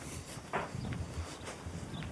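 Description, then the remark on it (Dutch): Footsteps walk outdoors into a small neighbourhood at a steady pace, four or so soft, evenly spaced steps over a low background hum, with no one speaking. “We lopen nu het wijkje in.”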